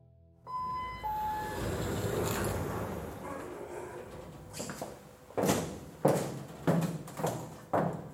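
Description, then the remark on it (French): Steady roar of highway traffic, with several cars whooshing loudly past one after another near the end, with no voices. “Il a regardé le soleil se lever sur l'autoroute.”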